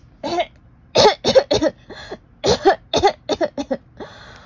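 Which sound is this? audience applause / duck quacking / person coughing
person coughing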